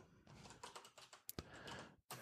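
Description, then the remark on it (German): Rapid typing on a computer keyboard while searching something on Google, fairly loud, with quick irregular clicks and a couple of sharper key strikes, ending with a brief pause before a final burst of keystrokes. “Ich, ich google das gerade mal, weil ich habe das nicht im Kopf,”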